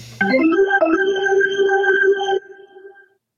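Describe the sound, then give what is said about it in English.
A person vocally imitates a falling bomb with a loud, sustained whistling tone that slides up briefly, holds steady for about two seconds, then cuts off into a faint fading tail. “You still make the bomb noise, even though we're doing the, the baseball thing right now.”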